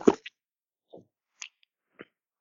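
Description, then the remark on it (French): Quiet gulping as someone swallows a drink: one fuller wet swallow, then a few softer clicks and gulps spaced about half a second apart, with no talking. “Euh, bah, bonne déglutition à celui qui vient de boire.”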